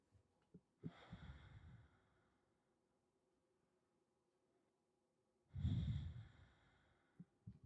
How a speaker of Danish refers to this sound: Og så tage nogle gode, øh, dybe vejrtrækninger.